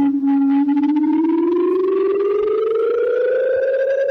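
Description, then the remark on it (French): A loud air raid warning siren from the Gulf War in Herzliya, near Tel Aviv, rises in a long, slow upward wail, its steady tone climbing in pitch over several seconds with no voices present. “Il a grandi sous les alarmes et les sirènes de la guerre du Golfe, à Herzliya, dans la banlieue de Tel Aviv.”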